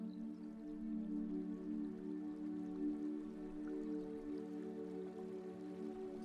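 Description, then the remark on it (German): A soft, steady rush of flowing water from a river some distance away, a continuous low murmur with no breaks and no voices. “Von weitem hörst du das Rauschen von Wasser.”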